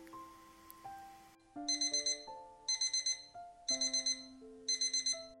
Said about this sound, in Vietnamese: Ơ! À, đã 6 giờ 45 rồi á? Rõ ràng mình đã đặt 5 cái chung báo thức rồi mà